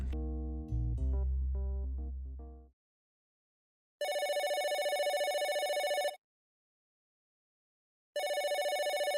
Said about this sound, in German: Das ist das Telefon von Eric Bischoff.